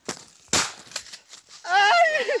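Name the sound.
gunshots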